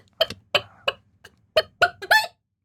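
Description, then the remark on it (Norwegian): A person's voice imitates a clucking hen with a series of about six short, throaty clucks in an uneven rhythm, the last one stretched into a rising squawk. “Ti av ti høne. Den er ganske ti av ti høne.”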